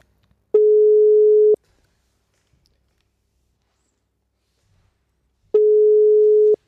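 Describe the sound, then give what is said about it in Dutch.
A telephone ringback tone sounds while a call connects: two steady one-second tones about four seconds apart, clear, with silence between them and no voices. “laten we Eva even gaan bellen”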